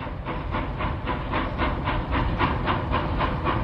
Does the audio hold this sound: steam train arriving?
yes